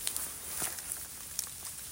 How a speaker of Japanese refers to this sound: えー、空はまあ持ってるんですけど雨は降ってるんですけど真っ暗ってわけじゃないですね上がる方向なのかなえー、池のほとりに立っていてまあ雨だれがあ水面に落ちてますね